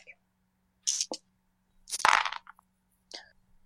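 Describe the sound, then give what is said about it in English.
Four dice clatter across a hard table in a few quick bursts, sharp rattling clicks tumbling and settling, moderately loud with short pauses between rolls. “So, how many dice should I use? You have two in helpfulness, none in athletics, and two people helping you. So, four dice.”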